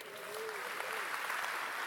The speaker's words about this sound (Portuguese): Quem pode dar uma salva de palmas para Jesus?